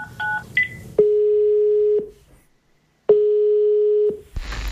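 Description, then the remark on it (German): A few quick dialing tones beep at the start, followed by two long, steady ringing tones separated by a pause of silence, clear, with no talking, as a phone call is placed to someone who works at the Münchner Stadtdetektive. “Ich rufe mal kurz Astrid Herrenleben an.”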